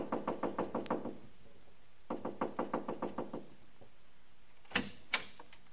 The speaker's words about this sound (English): The house was quiet like nobody was at home, but I saw a dim, spooky light inside somewhere. So I just kept knocking and knocking.